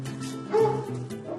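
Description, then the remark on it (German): A dog at home barks, a short burst of loud woofs with one sharper bark standing out near the middle, with no voices present. “Gut, manchmal ist nur der Hund zu Hause.”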